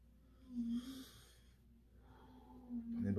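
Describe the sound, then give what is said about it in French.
A slow, deep breath: an airy inhale followed by a softer, drawn-out exhale, fairly quiet, with a faint low hum underneath. “respiration, ça va bien aller.”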